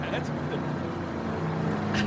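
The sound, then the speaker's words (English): A monster truck engine rumbles steadily with a low, throaty drone, its pitch shifting slightly as the truck goes back and forth with Hulk Hogan and Bischoff tethered together, set against a noisy, crowded background. “just going back and forth in the monster truck tethered together.”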